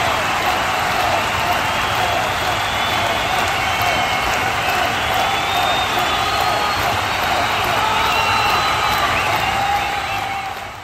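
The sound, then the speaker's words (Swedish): A large crowd at the Colosseum roars and cheers continuously, chanting "Caesar, Caesar" in rhythmic voices rising through a dense, steady wash of noise that stays loud for the whole stretch. “Cyrus bugar åt mannen samtidigt som publiken skanderar Caesar, Caesar sinnes.”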